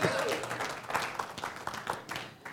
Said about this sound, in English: Yeah, you can clap to that. That's okay.